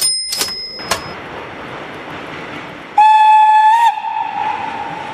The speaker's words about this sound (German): Und jetzt sitzen wir im Zug nach Hamburg. Ja, und zwar in einem ganz besonderen Zug. Wir sind nämlich eingeladen worden zu einer Probefahrt. Ja, am 19. Dezember 1932, das ist das Datum, und die Fahrt ist mit dem fliegenden Hamburger,